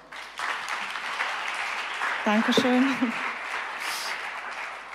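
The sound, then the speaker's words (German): Steady church audience applause after a sermon, welcoming a woman up to give her testimony: a dense crackle of many hands clapping at once, with a single voice briefly speaking over it partway through as the clapping carries on. “Gebt ihr einen fetten Applaus.”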